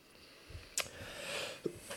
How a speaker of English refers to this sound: Sorry, I keep needing to clear my throat because I can't talk and I have this thing going on.